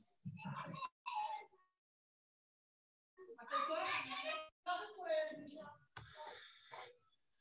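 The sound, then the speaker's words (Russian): Children's voices shouting and squealing in bursts, with a short pause midway, then several overlapping high-pitched cries and giggles, fairly loud and lively. “э, сбили со всеми детскими криками.”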